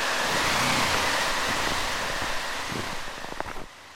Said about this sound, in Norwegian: Det vi hørte i bakgrunnen nå, er store vindmaskiner med kald luft som står rettet mot grensen til Norge.